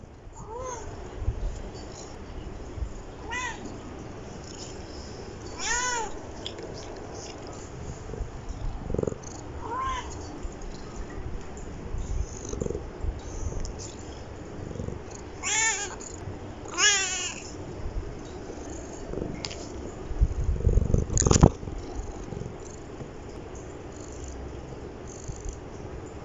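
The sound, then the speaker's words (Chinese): A household's pet kitten purrs steadily in a low, continuous rumble while letting out several high, wavering meows at irregular intervals, some short and chirpy, a few drawn out, with occasional soft bumps and rustles. “在节目结束之前呢，先给大家听听我家小猫的声音吧。”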